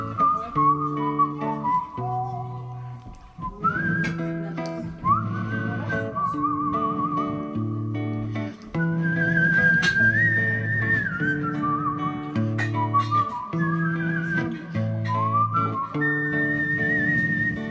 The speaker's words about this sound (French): Mon beau-frère, sa guitare, son micro, le meilleur siffleur ever, libre et généreux notre jukebox humain infatigable.